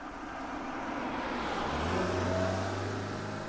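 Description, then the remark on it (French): A car drives along a four-lane dual carriageway on a 20-minute trip from a seaside town to a farm, its steady engine and tire rumble, with the engine note rising partway through as it picks up speed. No one speaks. “Le trajet ne fut pas très long depuis la ville balnéaire, 20 minutes de voiture à peine.”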